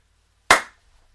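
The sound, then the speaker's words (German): A single sharp slap of hands meeting in a high five, crisp with a quick decay into silence. “Gib deinen Geschwistern oder dir selbst jetzt ein High Five.”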